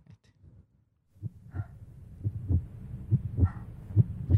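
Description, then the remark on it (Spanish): A heartbeat sound effect thumps in low, muffled pulses after a brief quiet start, growing louder and quicker toward the end, with no voices over it. “que quieres hacer un preámbulo, que tú nunca casi lo haces, pero un preámbulo ahí y está el corazón ahí.”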